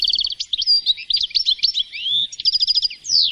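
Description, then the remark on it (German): A goldfinch, a small seed-eating finch, chirps in a rapid, tinkling stream of high twittering notes and liquid trills, fairly loud and continuous, with brief pauses and no voices. “Ebenso ein kleiner Finkenvogel, ein samenfressender Stieglitz.”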